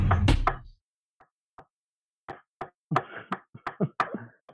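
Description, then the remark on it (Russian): Sharp tapping on a hard surface mimics chopping food on a board for a mock cooking show: an initial loud clatter, a few sparse taps, then a quick uneven run of crisp knocks. “Как будто что-то режу.”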